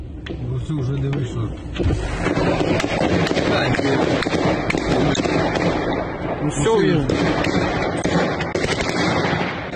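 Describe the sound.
Explosions echo through a war zone during the battle for Kyiv, Ukraine: sharp repeated blasts and cracks over a dense, rumbling din, with voices audible in the background throughout.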